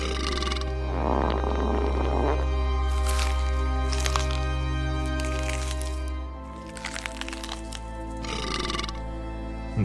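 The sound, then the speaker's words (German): Wet, crunchy chewing of teeth and lip-smacking come in bursts at a banquet, mixed with a coarse burp-like grunt and farting noises, all over a steady low rumbling drone with no one talking. “Durch ihre Ohren peitscht das Geräusch von kauenden Zähnen, Schmatzen, Rülpsen und Furzen.”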